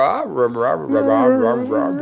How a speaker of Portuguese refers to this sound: Ela é canta é muito, ela não uiva, porque geralmente o cachorro, quando vai cantar, que alguém fala alguma coisa, ele imita só o uivo, né?